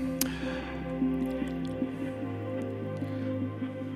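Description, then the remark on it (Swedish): Water is poured into a glass, a steady trickling, gurgling stream that runs for several seconds after a brief clink at the start, with no voices. “Och lite vatten till det jag tänkte jag skulle slå till med.”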